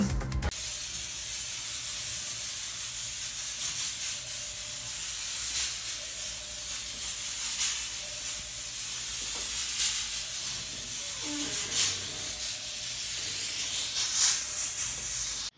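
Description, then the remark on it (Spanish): A steady, broad hiss of spraying runs throughout as disinfectant is misted in the offices of the Capaz, like from a pressurized sprayer, with occasional louder bursts and faint background clatter; no one speaks. “Debido a la contingencia sanitaria, las oficinas de la Capaz fueron desinfectadas”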